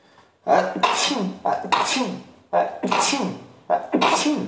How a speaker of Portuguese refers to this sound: Primeira pessoa a espirrar em podcast. E que vai deixar no podcast, que eu não edito essas, essas coisas.